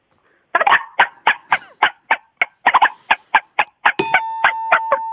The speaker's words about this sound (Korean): 이 닭은 어떤 닭입니까? 닭, 어, 모이를 쪼아먹고 있는 닭이요. 이건 중국 닭. 중국 닭이요. 이것도 중국 닭이에요? 네. 중국 닭은 우리 닭하고 좀 다른 게 있나요? 훨씬 더 크고 음. 좀 소리가 달라요. 아, 들어볼게요. 중국 닭이요.